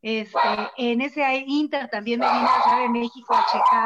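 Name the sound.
dogs barking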